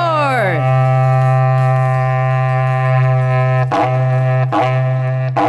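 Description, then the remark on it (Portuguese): A berrante cattle horn blown in one long, loud, low buzzing blast. The pitch slides down at the start, then holds steady, with two brief sputtering breaks near the end. “Toca o berrante aí, editor!”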